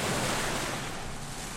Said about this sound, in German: Ihre Sicht verschwamm im Rhythmus der Wellen, die über sie hinwegrauschten.